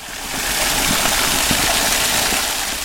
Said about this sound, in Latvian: Tajā ieplūst vēss ūdens no purva avotiem.